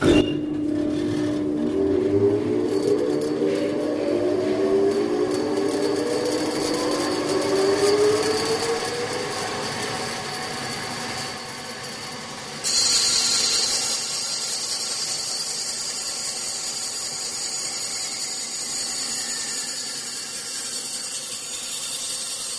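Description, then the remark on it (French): A band saw cuts through wood, preparing pieces of wood for making furniture, with a steady mechanical whir and whining tones that slide in pitch, then turns abruptly harsher and hissier partway through. No one speaks. “Donc on est devant une scie à ruban et euh, en fin de compte ça nous permet de faire des, des coupes euh, pour préparer les pièces de bois en vue de fabriquer par exemple un meuble.”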